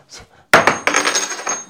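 A coin hits the floor with a sharp metallic clink, then rings and rattles in several quick bounces before settling, after a faint murmur at the start.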